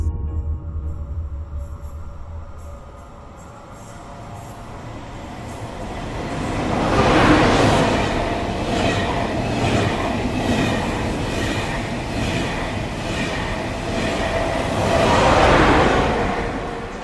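A train rolls along the rails with a steady rumble and rhythmic clatter of wheels, swelling louder as it passes, easing slightly, then surging again. No one speaks.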